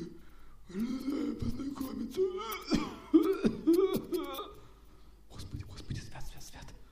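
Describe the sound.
A voice imitates a monster's hoarse, wheezy breathing broken by rough cough-like bursts, several strained, gravelly exhalations in a row, fairly loud, trailing off into quieter rasping near the end.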